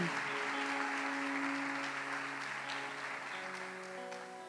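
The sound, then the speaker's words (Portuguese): Sustained audience applause, a dense wash of many hands clapping steadily for several seconds, with a soft musical tone humming underneath and no talking. “Se você crê e recebe isso para a sua vida, dê uma salva de palmas.”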